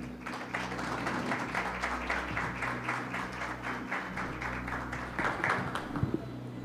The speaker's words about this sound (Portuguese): E aproveitar suas palmas para receber a pastora.